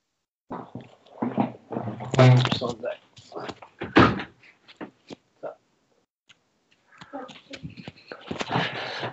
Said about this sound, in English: My dog's trying to come in.